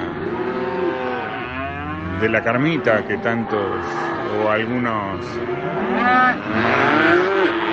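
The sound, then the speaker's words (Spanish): Weaned calves bawl and moo repeatedly in overlapping, drawn-out calls, fairly loud, while a man speaks over them, on March 30 during the weaning and vaccination season; the calves are weaned so the cows can be worked. “El ternero destetado por, eh, para poder trabajar la vaca.”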